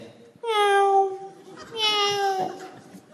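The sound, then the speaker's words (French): A prisoner imitates a cat's meow twice, two drawn-out, wavering, mewing calls, the second slightly rougher, with brief quiet between them. “Ah, ce n'est que le chat, se dit le gardien.”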